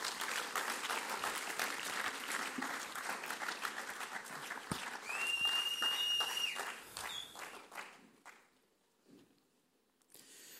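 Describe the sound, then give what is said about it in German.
Audience applause thanking people who shared their stories: a dense, steady wash of many hands clapping for several seconds, with a brief whistle-like tone partway through, then thinning out to scattered claps before fading. “Danke für vielmals, geben wir uns noch einen grossen Applaus.”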